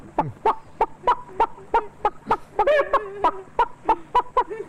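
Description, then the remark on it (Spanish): A whole henhouse of farmyard poultry stirring awake on a hot, hazy afternoon, clucking and gobbling in a steady stream of short, sharp calls, about a dozen bursts over a few seconds, with a louder warbling gobble in the middle. No one speaks. “pero estas otras cosas más sencillas del corral por ejemplo, este despertar en la tarde caliginosa de todo el gallinero.”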